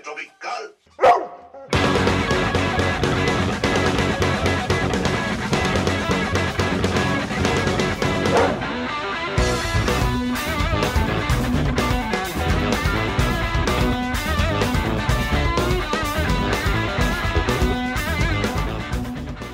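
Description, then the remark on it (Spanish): A funk song by a full band, with a strong, punchy drum groove, kicks in after a brief sparse intro, playing loud and full, with steady rhythmic hits driving the track throughout. “Escuchamos un poquito, muy poquito de …, canción número 12 de …”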